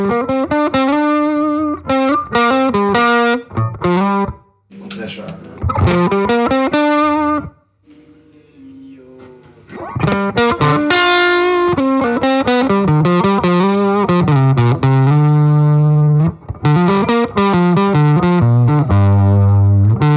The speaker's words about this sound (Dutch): Ehm, kun je de, dat, dat hals-element eh, laten horen? Of, of ga je hem nou uh, over, ja, heel even nog? Ja, element is eigenlijk heel funny, heel raar.